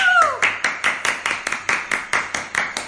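An audience claps in a steady, rhythmic beat, about a dozen sharp, even claps at a brisk tempo. A brief falling vocal whoop opens the clapping.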